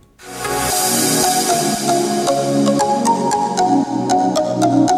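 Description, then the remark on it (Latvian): A loud, bright musical jingle begins almost at once and plays steadily, with sustained tones over a bass line and regular percussive hits, and no voices. “Un jā, tad tagad, tagad īs džingls un tad arī noklausīsimies vairākus pieredzes stāstus.”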